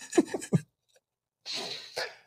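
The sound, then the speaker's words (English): A dog pants: three quick, throaty huffs, a short pause, then two longer raspy breaths, with no talking. “Just like my dog background. he's partying.”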